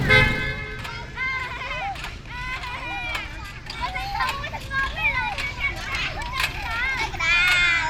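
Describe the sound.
Lively children's voices shout and chatter at one of the few playgrounds for children in Phnom Penh, with steady city traffic rumbling underneath and an occasional car horn.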